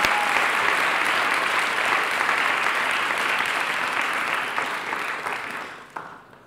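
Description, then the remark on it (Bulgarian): A crowd claps steadily in a dense, even wash of applause that holds for several seconds, then thins out and fades, with a few last scattered claps at the end. “Аз щях да ръкопляскам, ако бях от църква пробуждан.”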